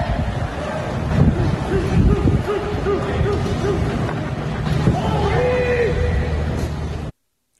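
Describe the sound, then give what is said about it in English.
A baseball game in a stadium with no crowd, as Baez doubles off Darvish: scattered shouts from players carry over a steady, windy background hiss, with no crowd noise at all. “Um, but this is what baseball sounds like with no crowd.”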